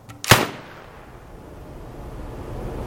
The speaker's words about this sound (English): So, there we were, man and monster, staring each other down. I slowly put my piece to my shoulder and took aim, squeezed the trigger, and fired.